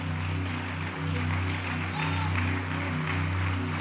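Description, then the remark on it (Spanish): Sustained clapping from a crowd of worshippers giving applause to the Lord Jesus Christ, a dense steady patter over a low humming background, continuing at an even level throughout without a break. “Denle un aplauso al Señor Jesucristo de de veras.”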